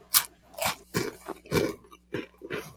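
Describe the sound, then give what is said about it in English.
Loud, crisp crunching of seasoned, burnt orangish red lentil bean tomato crisps being chewed, a run of about six sharp bursts in an uneven rhythm with brief pauses between bites and no talking. “See what the crunch factor is.”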